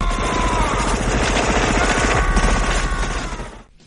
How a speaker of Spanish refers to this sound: El cañón rotatorio que usa el T-800 es exactamente el mismo que Schwarzenegger lleva en la película Predator, 1987.